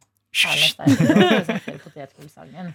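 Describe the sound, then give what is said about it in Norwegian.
A voice imitates a penis poking through plastic film: a sharp hissing burst, then a string of voiced, sputtering syllables that fade toward the end. “Det er lyden av penis som går gjennom plast.”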